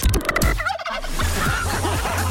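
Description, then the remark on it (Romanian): Turkeys gobble loudly in a rapid, warbling burst, their rattling calls overlapping with a low steady hum underneath. “Cum sunt găinile alea? Da. sau curcani sau ceva.”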